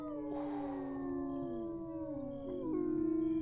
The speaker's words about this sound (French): Il était une fois un moulin hanté. La nuit, on y entendait de drôles de bruits. Des grognements, des aboiements, des ouh, ouh.